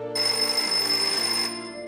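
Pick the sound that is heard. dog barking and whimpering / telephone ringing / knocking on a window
telephone ringing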